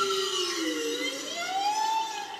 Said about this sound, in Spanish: Madre mía. Esas ballenas son una pasada. Esas ballenas boreales. Entonces tenemos a ver, ahora, empieza ahora. Son silbidos.